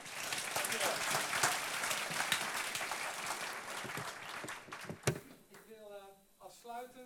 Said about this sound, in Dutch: Een warm applaus.